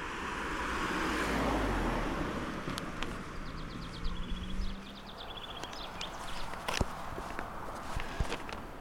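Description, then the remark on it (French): Quick runs of high bird chirps twitter faintly at a toll plaza, set against footsteps and a low traffic rumble outdoors. “Il y a même du gazouillis euh, au péage.”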